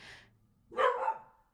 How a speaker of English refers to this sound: That's my dog. Honestly, I, I did that to myself. Should not have knocked on wood.